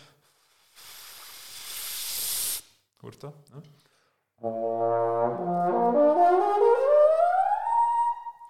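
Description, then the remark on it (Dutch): A breathy rush of blown air, a brief spoken question, then a trombone slurs upward through its overtones in clear stepwise jumps, each note higher and brighter, loud. The player changes notes with lips and air speed alone, without moving the trombone slide. “uit het instrument verschillende boventonen kan halen”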